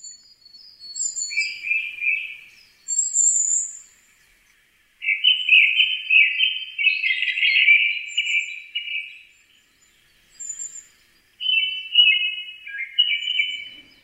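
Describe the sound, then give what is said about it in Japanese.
A Japanese thrush sings alone at Mount Takao (Takaosan), its song carrying over the valleys and forest. It gives several loud bursts of varied, fluty whistled phrases, with short pauses between them and thin, high notes trailing after. “高尾山の谷と森を越えて聞こえてくる黒つぐみのさえずり。”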